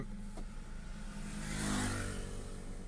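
Steady road traffic on an avenue rumbles in the background, with a car engine swelling as it passes and then easing off, no voices present.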